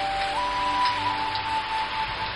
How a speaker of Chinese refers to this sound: 最近，我所在的城市大连经常会下雨，有的时候雨下的很小，淅淅沥沥的，